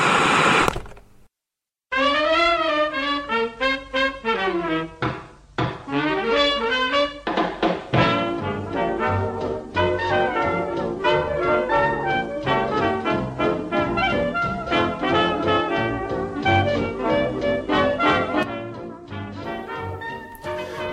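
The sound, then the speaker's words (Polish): Strange received radio signals: a short static burst, then warbling electronic tones that wobble up and down in pitch, giving way to a dense, rapidly pulsing stream of buzzy signal noise. No voices. “Kapitanie, odbieramy dziwne sygnały. Niech pan posłucha.”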